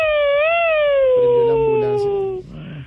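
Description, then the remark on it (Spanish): A single long ambulance siren wail, a steady bright tone that wavers slightly and then slides slowly downward in pitch for about two seconds before cutting off. Faint background murmur sits underneath. “Y ahora la ambulancia.”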